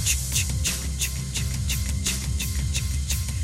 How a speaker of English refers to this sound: like they purposely made it so it like, sounds like a locomotive like, yeah hence the conductor